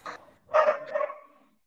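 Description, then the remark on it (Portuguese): A dog barks twice, a short yap followed by a louder, longer, drawn-out bark that trails off, with no one talking. “Tipo, aqui tem cachorro nenhum aqui, não.”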